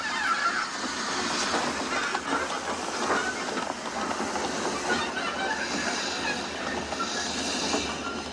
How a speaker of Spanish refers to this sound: Mientras, el tren en el que va Gandhi se detiene ante otro tren descarrilado en la vía de sentido contrario.